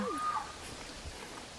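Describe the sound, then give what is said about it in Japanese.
A single short call with a rising-then-falling harmonic tone, like a shouted "oi!", comes from a camouflaged frog in a mossy spot between rocks, followed by quiet outdoor background. “こいつの鳴き声です。カエルだったんだ。”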